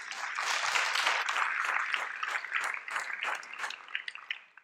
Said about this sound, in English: another um, round of applause for sandor katz why not